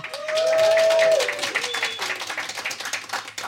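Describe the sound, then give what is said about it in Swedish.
An enthusiastic audience at the Convictus health centre on Magne Ladulåsgatan claps and cheers loudly during a live broadcast, dense applause throughout with a sustained whoop or whistle rising above it early on, then the clapping continues steadily before easing slightly. “jag står här med en entusiastisk publik framför mig. Får jag höra?”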